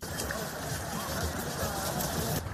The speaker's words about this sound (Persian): صدای جوانان است که روز سهشنبه در اطراف آبشار در پاریس به تفریح پرداختند جایی که گرمی هوا به 37 درجه سانتیگراد رسیده بود